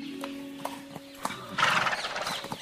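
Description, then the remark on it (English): A horse's hooves clip-clop in a steady rhythm, then a loud, bright whinny rises and trembles over the footsteps before they continue alone. It is the Emperor's finest horse, given to Mulan. “And please take my finest horse with you.”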